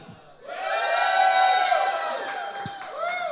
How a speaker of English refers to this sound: I can see it's a rowdy crowd. This place is out of hand.